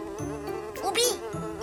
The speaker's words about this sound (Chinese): 嗯，那些个苍蝇围着我嗡嗡嗡的转，嗯，纯属是碰巧的事儿。